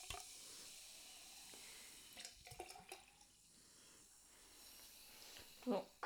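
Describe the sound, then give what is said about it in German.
A light pink-orange, sweet watermelon-smelling carbonated drink fizzes, a steady bright hiss of bubbles with scattered crackles and a couple of sharper pops toward the end. “Also es sprudelt auf jeden Fall.”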